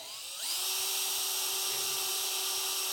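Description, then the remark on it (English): A power drill spins up and runs steadily with a loud, high-pitched whine, with faint rhythmic ticks and grinding underneath as it drives a screw backward. No one speaks. “But same drill, same type of screw, you go the other direction, and what happens?”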